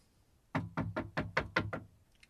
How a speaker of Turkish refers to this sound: Baba kapı çalınıyor.